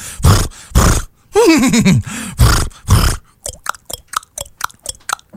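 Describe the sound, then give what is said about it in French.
A person imitates a horse: loud breathy snorts, a wavering, descending whinny, more snorts, then a quick series of sharp tongue clicks like clopping hooves. “Je suis capable d'imiter des animaux. Hmm. Le cheval.”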